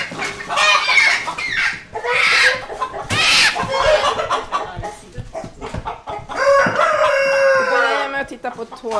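bird, rooster crowing

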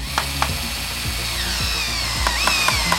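tool, electric drill running

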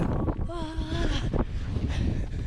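nature, flowing river

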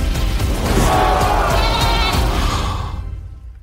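animal, goat bleating

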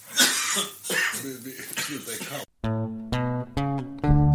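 human body sound, coughing

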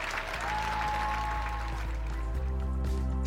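crowd, thunderous applause

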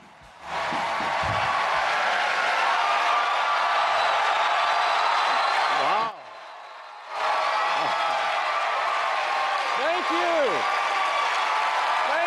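crowd, audience ovation applause

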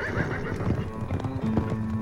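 animal, horses galloping and neighing

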